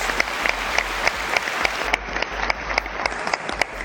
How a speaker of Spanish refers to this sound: ¡Bravo, Indira! ¡Aplausos!